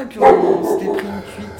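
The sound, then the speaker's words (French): A dog barks in a short burst near the start, loud and sharp, while people keep talking over and around it. “C'est le chien qu'on entend.”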